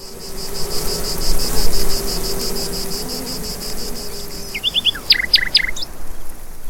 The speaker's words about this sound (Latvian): Kas tur bija? Putnu balsis. Kas vēl tur skanēja? Bites. Jā, bitītes un putniņi. Un mušas. Odi arī.